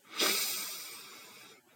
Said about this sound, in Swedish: Och ta ett djupt andetag efter en kanske lång och hektisk vecka. Så andas in djupt.